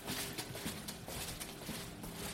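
Quick, scuffing footsteps of two people wearing blue plastic shoe covers, crinkly rustling steps in an irregular rhythm, steady for a couple of seconds with no talking, as they walk into a laboratory.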